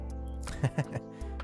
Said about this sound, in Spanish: Espérame, que voy a estornudar, güey.